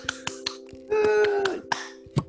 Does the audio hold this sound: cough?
no